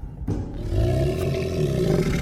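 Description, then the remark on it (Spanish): A deep, muffled, furious howl of creatures on a city avenue rises suddenly and sustains at full force, a growling roar that rumbles on without pause for a couple of seconds. “Se un aullido sordo y furioso, y entonces las criaturas arrojaron sobre él.”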